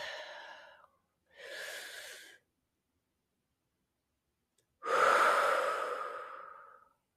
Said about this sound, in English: So until next time, my dear ones, let's take a breath.